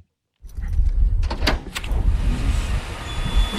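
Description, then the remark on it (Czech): The door of an inconspicuous red-and-white striped container cabin at the end of an airport runway in Náměšť nad Oslavou is opened by a senior technician with a few sharp clattering clicks and rattles, followed by a steady, fairly loud wind-like rumble that continues to the end. No one speaks. “otevírá dveře nenápadného červeno-bíle pruhovaného kontejnerového domku na konci ranveje letiště v náměšti nad Oslavou.”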